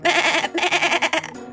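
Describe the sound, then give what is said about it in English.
A goat bleats twice in quick succession, loud, nasal and quavering, with a wavering tremble through the second longer call before it trails off. No voices accompany it. “G，嗯，原来这回来的呀是我们的老朋友 G，它变成了山羊。”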